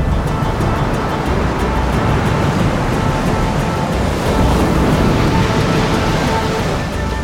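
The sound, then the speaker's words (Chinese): Huge tsunami waves strike Shiyuan Island at dawn in a continuous, loud, rumbling roar of churning water that barely lets up for about seven seconds, with no voices. “果然，在隔天的清晨，正如那只开口说话的小鱼儿所预言的一般，巨大的海浪袭击了石原岛。”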